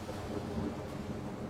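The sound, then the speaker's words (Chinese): A low, rolling rumble of thunder that holds steady at moderate loudness for its whole short length, with a broad grainy wash over it and no voices; a sudden dry thunderclap under a dim sky, with lightning but no rain and no dark clouds. “忽然传来了一声炸雷，只有雷声，没有下雨；只有闪电，没有乌云。”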